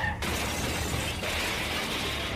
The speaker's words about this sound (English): Gunshots rang out from the vehicle behind, piercing his rear windscreen. Bob's car began to skid out of control and smashed into the central reservation,